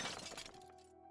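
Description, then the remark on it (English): A loud crash of a shop window smashing, a burst of shattering glass that trails off into thin ringing tones and scattered tinkling shards. “Receiving his first probationary sentence in December of 1963 for smashing a shop window.”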